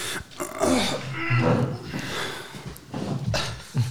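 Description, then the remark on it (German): A person makes strained, drawn-out groaning and grunting noises with heavy breathy exhalations, imitating the effortful sound of standing up, repeated over several seconds. “Also wenn ich aufstehe, mache ich meistens”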